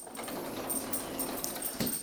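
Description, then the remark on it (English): A dog whines and whimpers in short, restless bursts over a steady background hiss, fairly quiet, with no one speaking; the dog wants to go outside and is being let out. “Okay, now I'm letting the dog out. Yeah, he wants to go outside. He can go bark some more.”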